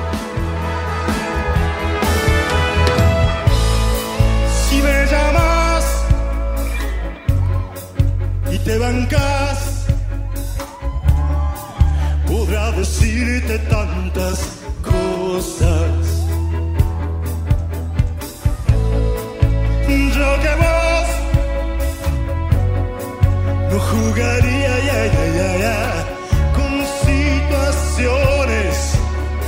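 An Argentine Spanish-language rock song plays loud and continuous, with sung vocals over heavy bass, steady drums and layered guitars and keyboards filling the whole stretch.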